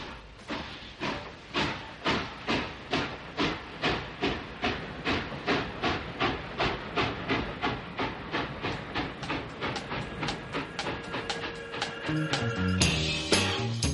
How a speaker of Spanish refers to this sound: Suena un tren, claro, Luis Vicente, es que el propio nombre ferrovial tiene un vínculo clarísimo, ferroviario.